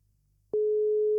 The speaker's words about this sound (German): Es klingelt. Hoffen wir, dass er rangeht. Ja. Noch nicht.